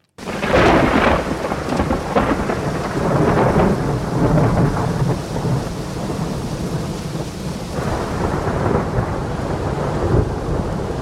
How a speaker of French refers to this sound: j'ai demandé un orage très violent à Juliette Médevielle